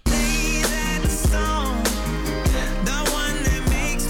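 A full-band pop song plays loudly and steadily, with a punchy drum beat, bass, and layered melodic instruments carrying a bright, upbeat groove throughout.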